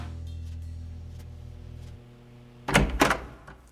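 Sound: knocking on a door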